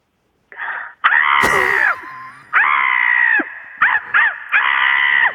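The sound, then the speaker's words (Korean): A person loudly imitates a crow's caw as an encore by a contest winner on the phone, a string of harsh, strained vocal bursts, a few long drawn-out calls followed by short choppy ones, with no other talking. “아니, 예, 앵콜 까마귀 듣겠습니다.”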